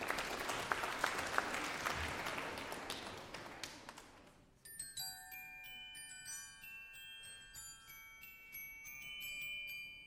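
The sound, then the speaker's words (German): A burst of applause fades into an original Mozart glockenspiel, played by an audience member, ringing out a bright melody of struck, ringing metal notes that overlap and sustain, clear with no voices. “Boah, klingt das schön oh, jetzt singen wir das alle miteinander nochmal voller Inbrunst und mit Original Mozartschem Glockenspiel.”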